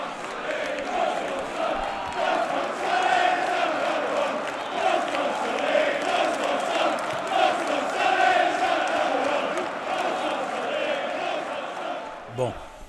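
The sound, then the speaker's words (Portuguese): A large crowd of Tottenham football supporters chants together in a steady, rhythmic song, many voices blending into a loud, sustained roar that rises and falls in waves for the whole stretch. “aí um pouco da torcida, especialmente torcida do Tottenham, né?”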